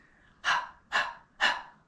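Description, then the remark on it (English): A person pants like a dog with their tongue out as a breathing exercise: three quick, evenly spaced breathy huffs, fairly loud, with no talking in between. “And to help you get it down, we're going to start doing it with our tongue out. So we're going to do it like a dog panting”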